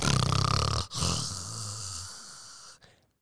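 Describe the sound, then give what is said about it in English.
A woman sleeping on a bed snores loudly, a rough rattling inhale followed by a long, lower droning exhale that trails off into a quiet breath. No talking. “And as she's sleeping, she's snoring real loud too.”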